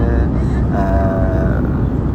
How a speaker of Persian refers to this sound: هواپیما وارد سرزمین برزیل شد این لحظه و چیزی که تو تلویزیون مانیتور جلوم داره نشون میده این که از وارد خشکی شد از روی اقیانوس گذشت وارد خشکی شد و و من رسما وارد امریکای جنوبی شدم